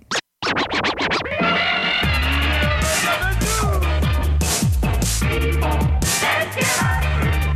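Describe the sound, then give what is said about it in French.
Loud DJ turntable scratching over a pounding electronic beat, with rapid back-and-forth pitch sweeps repeating in rhythm for several seconds, with no voices, played on radio station CIBL 105 Montréal at about noon. “Au son du scratch, il sera très approximativement midi.”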